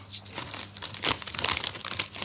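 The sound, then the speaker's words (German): Crisp packets crinkle and rustle continuously as they are handled, with a sharper burst of crackling in the middle and irregular crunchy scrunches throughout. “Logisch, lässt du die Tüten mal hier in Ruhe, bitte.”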